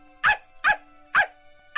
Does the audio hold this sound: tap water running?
no